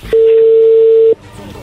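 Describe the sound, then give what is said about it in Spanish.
A single loud, steady telephone line tone hums for about a second as the call connects, then cuts off abruptly, leaving faint background noise. “A ver, Lobo, ahí entró la llamada.”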